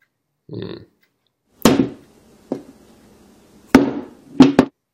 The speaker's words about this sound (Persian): بیاید شروع کنیم اولین کاری که میکنیم اینه که از چند اینچی چکش راحت رها میکنیم روی گوشی خیلی راحت